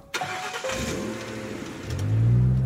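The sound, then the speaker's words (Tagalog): A car engine turns over with a sharp start, settles into a steady running hum, then swells louder and deeper as the car pulls away and is driven home, with no voices. “Habang nagdadrive na ako pauwi”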